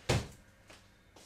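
A door slams shut with one heavy, close thud, followed by a couple of faint rattling knocks as it settles, then quiet.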